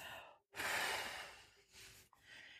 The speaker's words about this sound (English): Hold, two, three, four. Release. And just breathing all the way out.